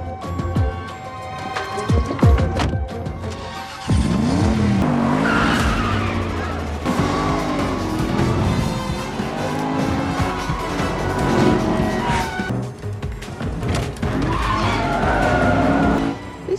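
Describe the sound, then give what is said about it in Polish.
A car driven hard by Helen Mirren with Vin Diesel in it, in a scene from the film Fast & Furious 9, tires skidding and squealing in long wavering bursts, the engine roaring loudly throughout, with a brief voice faintly audible beneath. “posłuchajcie, jak w filmie Szybcy i Wściekli 9 Helen Mirren, mając w samochodzie wina diesela, prowadzi samochód.”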